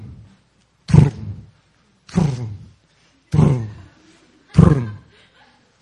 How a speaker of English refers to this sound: the sound of his white horse.